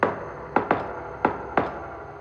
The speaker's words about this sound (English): Since that night, I had gone outside Lily's room five times. Each time, I gave the door a secret knock.